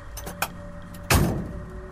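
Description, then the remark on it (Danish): A truck door clicks open, then a heavy thud as it slams shut, with a low engine hum running underneath, as the driver gets out of the truck on a long country road in rain and low-hanging fog to examine the area. “Vores chauffør går ud af lastbilen og undersøger området.”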